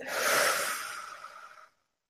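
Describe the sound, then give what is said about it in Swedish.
A single slow, breathy exhale after a deep breath, taken during a short breathing exercise, swelling quickly and then tapering off over about a second and a half before silence. “Och andas ut.”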